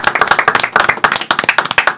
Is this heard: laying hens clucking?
no